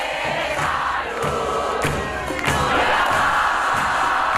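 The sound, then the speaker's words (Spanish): A large stadium crowd of football supporters chants together, 'La deuda no la vamos a pagar,' in a loud, steady roar, voices blending into a dense wall of sound with occasional swells and shouts. “Esto, esto canta la hinchada después de escuchar a Esteban La deuda no la vamos a pagar.”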